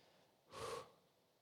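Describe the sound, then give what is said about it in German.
A single short, airy deep breath, taken to come to rest, a quick hissing rush that swells and fades within a moment, fairly quiet against a soft, still background with no talking. “Wenn es dir hilft, schnauf, schnauf tief ein, schnauf tief aus.”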